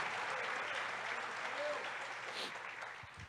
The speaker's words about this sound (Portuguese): Dá um aplauso a Jesus, dá um aplauso a ele. Diga glória a Deus.